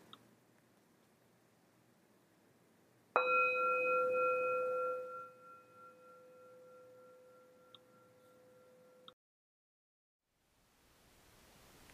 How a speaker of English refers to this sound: In a moment, I'll ring a bell once to symbolize a transition to our group practice.